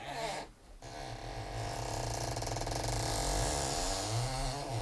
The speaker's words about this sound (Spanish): O sea, tirando de las cintas magnetofónicas suena sí, así.